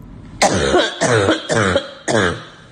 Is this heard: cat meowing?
no